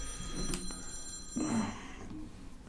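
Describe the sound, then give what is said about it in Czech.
A mobile phone rings with a steady, bright electronic tone, the ring swelling briefly midway through against a low background murmur; no one speaks over it. “hlavně si myslím, že je dobrý na jednáních mít vypnutý mobil. Promiň.”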